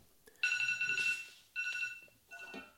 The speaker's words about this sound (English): Oh, well, that's my alarm. Well, that's my alarm telling me that uh, that I have to run